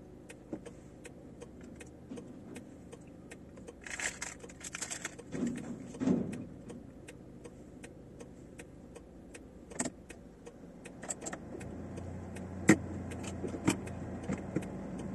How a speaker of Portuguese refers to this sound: você vai pôr o carro pra dentro e eu vou entrar de novo